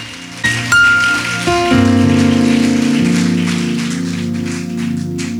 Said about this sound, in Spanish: En el nombre de Jesús, dale un aplauso al Señor de la gloria.